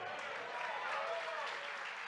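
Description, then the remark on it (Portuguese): A church audience applauds the Lamb in a dense, steady wash of clapping that holds at an even loudness throughout, with no pauses and faint voices blended underneath. “Aplauda mesmo ao Cordeiro, porque essa é a transformação da graça de Deus em Cristo Jesus.”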